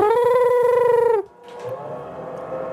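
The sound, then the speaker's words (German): A power drill bores into a wall with a loud, steady high whine, cuts off abruptly after about a second, then starts grinding again at a lower pitch. “was kann man denn jetzt jede Woche neu anbohren?”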